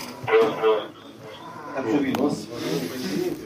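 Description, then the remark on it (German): Crackly, hiss-filled military radio chatter plays in short bursts of muffled voices, with brief pauses between transmissions and a steady static noise underneath, heard in a phone video filmed in a cellar near Bakhmut in the Donbas. “man hört auch Funksprüche im Hintergrund.”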